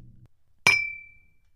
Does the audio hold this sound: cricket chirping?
no